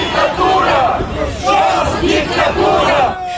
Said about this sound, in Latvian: Arī šodien Kišiņevā notiek prokrieviska demonstrācija. Protestētāju vidū pārsvarā pensionāri ar valdību kritizējošiem plakātiem un pareizticīgo ikonām rokās.